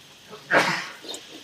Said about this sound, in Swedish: Prosit! Prosit!